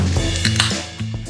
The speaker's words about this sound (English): Anthony popped a seltzer.